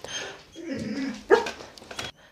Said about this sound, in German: Jetzt gerade bellt äh, mein Hund gerade ein bisschen, ich weiß gerade nicht warum.